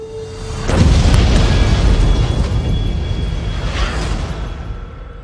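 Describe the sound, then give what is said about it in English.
A bomb explodes in a city with a sudden, powerful boom after a moment of low background noise, then a heavy rumbling roar lingers and slowly fades, with scattered crackling debris. No one speaks. “An explosion rocked the city today.”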